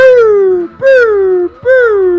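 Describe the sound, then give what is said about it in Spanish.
A dog howls three times in a row, each long wavering cry sliding downward in pitch with brief pauses between them, loud with no one talking. “Sí, ya salió un perro y se quería, quería mordida.”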